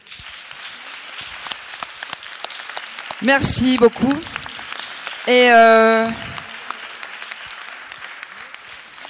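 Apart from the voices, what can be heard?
audience applause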